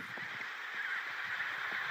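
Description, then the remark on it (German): A penguin colony calls in a dense, steady chorus of overlapping honking and braying voices, a continuous din with no gaps and no one speaking. “Wir machen noch ein paar Aufnahmen von den Tieren genießen die Stimmung, konzentrieren uns auf die Geräusche, die die Vögel machen.”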